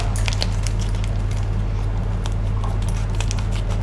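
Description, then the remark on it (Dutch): Crinkly plastic rustling and small snipping clicks come in quick, irregular bursts over a steady low hum, as a plastic bag of beets is snipped open above a sink. “Ik pak een zak. En dan doe ik de bieten erin. En dan knip ik hem open.”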